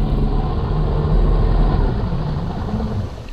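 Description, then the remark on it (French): A deep, steady boat engine rumbles continuously as a boat approaches an island in the early morning, a low droning hum holding at a fairly constant loud level throughout, with no voices present. “Un moteur.”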